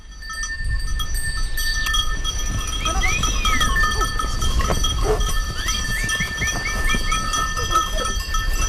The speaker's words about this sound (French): loin des pesticides, et pourquoi pas dans le tintement des cloches et des sonnailles.